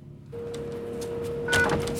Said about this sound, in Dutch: Nou, is een oude deur ook nog. Nee, oh ja, daar gaat ie.